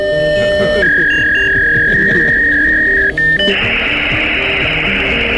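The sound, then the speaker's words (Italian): Loud, continuous Commodore 64 tape loading sound as a game loads, similar to a fax sound: a steady electronic tone shifts to a high piercing whine, then becomes a harsh, buzzing screech, with no voices. “E ora possiamo finalmente giocare al Commodore 64.”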